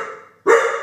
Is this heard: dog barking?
yes